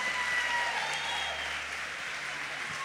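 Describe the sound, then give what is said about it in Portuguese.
An audience at IBF Church applauds Jesus steadily, a dense, continuous wash of many hands clapping at an even loudness with no individual claps standing out. “vamos aplaudir Jesus.”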